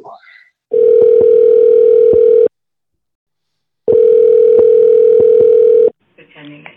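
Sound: telephone call ringing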